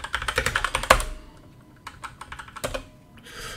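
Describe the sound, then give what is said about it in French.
Rapid bursts of keyboard typing, clear, with fast clustered keystrokes that pause briefly midway and then resume in quicker flurries, no voices present, as someone tries to spam. “J'essaie de spammer.”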